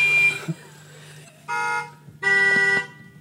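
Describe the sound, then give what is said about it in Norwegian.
The horns of seven cars sound one after another in short, loud blasts, each at a different pitch, playing the Norwegian royal anthem (Kongesangen) outdoors in Tynset, Norway, with a low engine hum underneath. “Mens kongesangen som her er vel sju biler, sju toner.”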